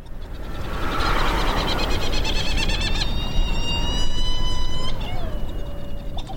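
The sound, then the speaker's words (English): Herald or Trindade petrels, gadfly petrel seabirds flying all around on Round Island near Mauritius in the Indian Ocean, call over steady wind and surf noise, several wailing, harmonic cries overlapping, with a long drawn-out note that slides downward near the end. “These are flying all around us, are these amazing gadfly petrels called uh, Herald petrel or Trindade petrels.”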